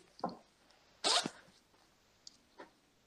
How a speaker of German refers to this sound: Also ich weiß nicht, ob das. Es klingt so, als schlägt dein Mikro an einen äh, Reißverschluss an oder dein, dein Headset irgendwie.